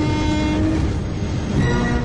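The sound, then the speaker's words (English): A locomotive horn sound effect on Holy Culture Radio blares in a steady, sustained tone over the heavy, continuous rumble of a moving train, loud throughout the two seconds with no voices. “Faster than a speeding bullet, more powerful than a locomotive,”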